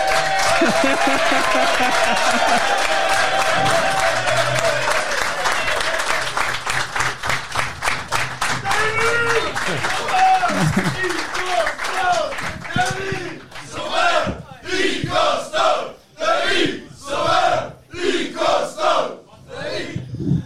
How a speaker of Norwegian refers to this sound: Applaus.